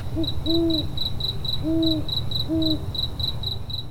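An owl hoots three times at an unhurried pace, clear, over a steady, rhythmic chirping of crickets and a low background rumble of night ambience.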